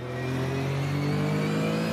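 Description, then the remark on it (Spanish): A 1974 Porsche RSR race car driven by Manu Celis revs hard and steady from onboard during a race, a loud, sustained mechanical drone with strong harmonic tones that hold across the whole moment without any voices. “Mirá, vamos un ratito a bordo de lo que es este Porsche rsr 1974 con, con Manu Celis desde su auto.”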